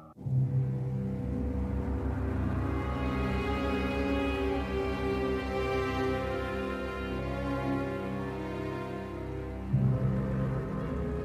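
A car engine hums steadily as the vehicle drives to a church, a continuous low rumble with a rising tone, fairly loud, with a brief surge near the end.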